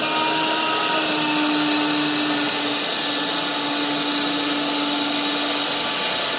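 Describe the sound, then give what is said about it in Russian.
A HOBOT 298 window-cleaning robot runs on window glass, moving up, turning and working left to right, with a steady, loud vacuum-like whir and a thin high whine, holding an even level throughout with no speech. “Робот для мойки окон HOBOT 2”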